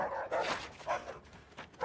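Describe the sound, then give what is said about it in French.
Dogs bark at night in a loose series of four or five sharp yaps over about two seconds, moderately quiet, with no talking, as customs officers check trucks arriving at a port. “Ça commence avec un générique, puis une scène de nuit Bruit de moteur, aboiement de chiens.”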